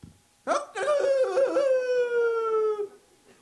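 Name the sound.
rooster crowing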